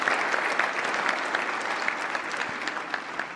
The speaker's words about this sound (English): Thank you, Steve, for that introduction. And a special thanks to the 42% of you actually applauded.